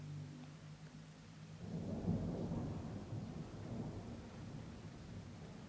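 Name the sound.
thunder rumbling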